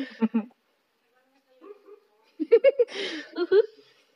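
A dog named Ranger gives a few soft, muffled woofs and whimpers while barking in its sleep, short breathy bursts, with a person laughing quietly alongside.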